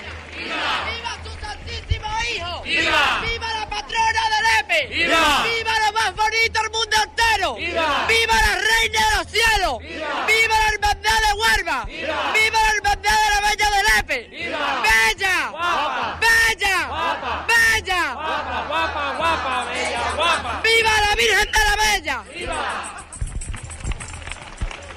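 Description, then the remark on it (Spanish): A large crowd before the Virgen de la Bella shouts and cheers with strong emotion, people crying and calling "Viva la Virgen de la Bella", voices rising in repeated waves of loud cries and calls that fill the space continuously, intense throughout. “Pues esto es lo que se vive aquí, Juan. Viva la Virgen de la Bella mientras lloran, mientras gritan, mientras se emocionan”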